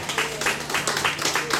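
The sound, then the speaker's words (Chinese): Audience applause welcoming the start of a class: a steady run of sharp, crisp claps at an even, fairly quick rhythm, moderately loud, with a faint low hum running underneath throughout. “好，那我们让好欢迎这堂课的开始来，我们给掌声好不好？”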